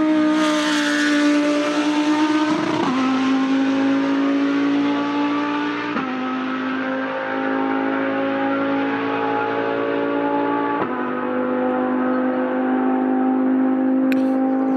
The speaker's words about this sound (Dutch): En wij praten verder met Jeroen Mul. Hij is coureur bij Lamborghini en hij rijdt in de Huracan GT3. dat klinkt dan dus zo als hij achter het stuur zit.